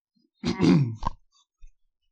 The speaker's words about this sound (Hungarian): Köszörül a torkot.